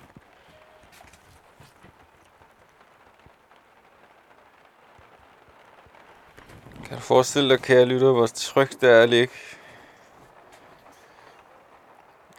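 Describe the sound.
Steady rain drums on a caravan roof in a dense, continuous patter throughout, with a person speaking over it for a few seconds toward the end.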